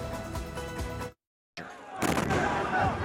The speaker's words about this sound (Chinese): 但空袭爆炸不断，安身之处遥不可及。这里是加萨南部，是以色列要加萨居民撤离到的安全地带，但炮弹不长眼。十五号，当地再次遭到炮火袭击。